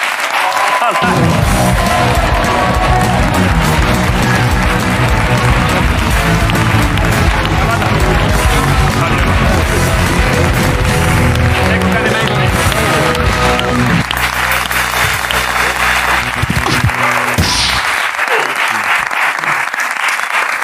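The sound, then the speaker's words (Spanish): A studio audience on the show La Resistencia breaks into loud, sustained applause for guest Seku Kanye Mason, holding steady for about seventeen seconds with a tonal musical backing underneath, before cutting off abruptly near the end. “Pido un aplauso para Seku Kanye Mason en la resistencia.”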